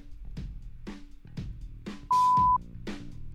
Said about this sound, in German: Du musst ja, heute so viele Namen rauspiepen, das ist ganz schlimm.